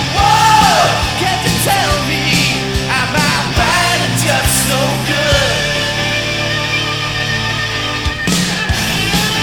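AOR rock band music by an Italian band plays steadily, with strong, loud vocals soaring over driving drums, bass and guitars; a full, continuous mix with no speech.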